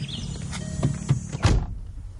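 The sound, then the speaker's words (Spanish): A car door opens with a few soft clicks and rattles as someone gets out of a car parked in front of a house, then shuts with a solid, louder thunk over a low engine-like rumble, followed by quiet. “Baja del coche.”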